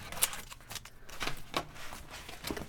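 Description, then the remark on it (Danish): Stiff cardboard registry cards, made to last for years and holding information about who lived in a property, are flicked and shuffled through by hand while searching for one card, a series of quick, crisp papery riffles and slaps, irregular in rhythm, with no one talking. “Øhm, men ja, hvis vi kigger nærmere på et kort, så skal jeg lige finde”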